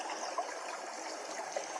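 A stream flows steadily with a continuous, even rush of water and a few small bubbling gurgles, at moderate volume, with no voices.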